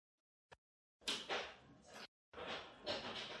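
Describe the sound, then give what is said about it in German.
Hail clatters outside in a dense, hissing patter of countless small impacts, coming in two loud bursts with a brief gap between them and a single faint tick before. “Es hagelt jetzt bei uns.”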